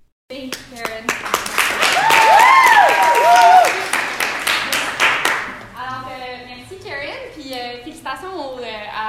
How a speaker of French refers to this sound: Euh, il y avait des gens dans la salle, hein, donc des fois ça applaudit, des fois ça rit